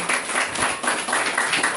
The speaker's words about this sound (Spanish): ¡Príndele un fuerte aplauso al Señor, vamos. un fuerte aplauso al Señor.